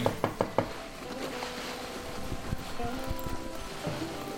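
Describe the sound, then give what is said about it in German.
Four quick, firm knocks on the door of a doctor's practice in a rapid, even burst at the very start, followed by quiet, murmuring background ambience with no further knocking. “Dann klopfe ich mal energisch dagegen.”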